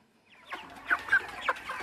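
Many chickens clucking and cackling together in a dense, overlapping chorus, with a few louder calls standing out, at a chicken production farm in Côte d'Ivoire.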